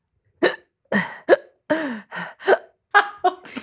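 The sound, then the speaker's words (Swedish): A voice imitates a girl's hiccup attack with about nine sharp, squeaky vocal bursts in quick, slightly uneven succession, fairly loud, with no speech. “bästa imitation av en hickattack”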